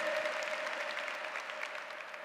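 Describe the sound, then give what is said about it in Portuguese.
An audience applauds God steadily, a dense wash of many hands clapping at an even, sustained level for the whole stretch, with a faint steady tone running underneath. “E isso de Deus, aplauda Ele, de Deus.”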